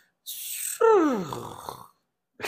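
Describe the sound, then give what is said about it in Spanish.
A voice imitates a broken car air conditioner: a breathy hiss followed by a loud, strained groan that slides downward in pitch, then a brief noisy puff at the end. “El simple hecho de que yo decía, vaya, por ejemplo, un aire acondicionado, ahorita se me jodió el aire del, carro. De repente escuché un...”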